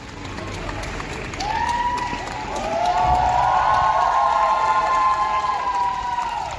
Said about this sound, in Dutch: Je hoort hier het applaus van een groep studenten die zich verzameld hebben op de binnenplaats van de Staatsuniversiteit van Sint-Petersburg.